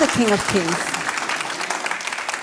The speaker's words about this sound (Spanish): Cuantas veces sea necesario, porque Dios, déle ese fuerte aplauso al Rey de Reyes.